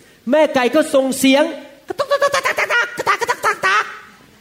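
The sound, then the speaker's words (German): A person imitates a hen calling her chicks, with a drawn-out, wavering cackle, then a rapid run of about a dozen short, punchy clucks in steady rhythm, fairly loud. “Und dann ruft die Henne ihre Küken.”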